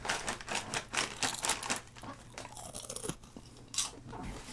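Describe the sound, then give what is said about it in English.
Crunching on crisp puffed beet snacks, a quick run of sharp, brittle bites at first, easing into softer chewing, then one more loud crunch near the end. No talking. “It's a nice crunch. It's got like that puffy crisp.”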